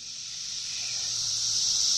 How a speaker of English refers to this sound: it's just a bunch of cicadas. But when we come back from break, we will dig into that sound and find out that it is much more than at least I ever thought it could be.